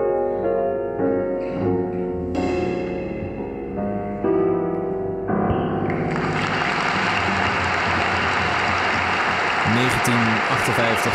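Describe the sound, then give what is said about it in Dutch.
Sustained instrumental music plays for a few seconds, then an enthusiastic concert audience at the Concertgebouw bursts into dense, steady applause that carries on loudly to the end. “publiek, ja, dat enthousiast, is... klappen.”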